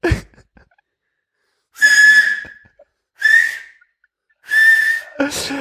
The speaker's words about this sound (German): Aber es klingt so ein bisschen wie so ein Pfeifen, das ist noch nicht so ganz. Digga, seit gestern kann ich das jetzt.